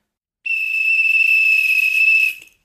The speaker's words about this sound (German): Na, habe ich gefühlvoll getrillert? Oh, das war so emotional. Ich bin eine gefühlvolle Pfeife.